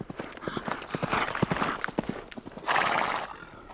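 Horse hooves clip-clop in a quick, uneven rhythm of sharp knocks, then a loud neigh rings out near the end, clear with no talking.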